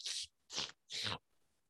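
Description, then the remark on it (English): A voice mimics wet slurping: three short, hissy sucking bursts in quick succession, fairly loud, followed by quiet. “remember that shit it could have been, that could have been like applesauce slurping”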